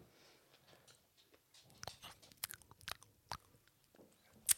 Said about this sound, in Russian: Сейчас жуют.